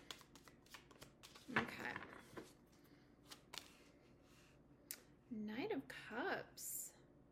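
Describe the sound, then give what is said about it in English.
Tarot cards being shuffled for a Scorpio reading about the May 5th eclipse, with a burst of riffling flaps and scattered crisp clicks, followed by a short stretch of a voice speaking over the last taps. “Let me get one more good shuffle.”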